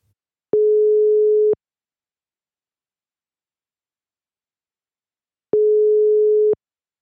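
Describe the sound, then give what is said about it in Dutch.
A telephone ringback tone while a call connects: two steady one-second beeps separated by a long silent gap, clear and moderately loud, with no voices. “En dan is het nu tijd om te bellen”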